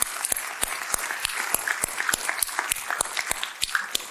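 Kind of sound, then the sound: crowd, audience applause and cheering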